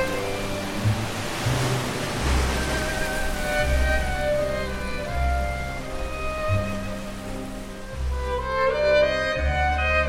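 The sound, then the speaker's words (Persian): Steady sloshing and splashing of sea water as people swim through it, parting the water, continuing for the whole stretch at moderate loudness beneath a soft, sustained musical background. “شنا میکنیم و آب را می شکافیم.”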